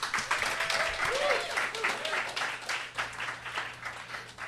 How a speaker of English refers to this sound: please give a warm round of applause for Cachet Anderson